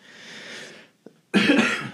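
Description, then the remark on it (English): A person coughs: a softer breathy cough, a brief pause with a small catch of the throat, then a louder, harsher cough burst, with no talking. “Um, this is going to be the coughing uh, episode of Christmas.”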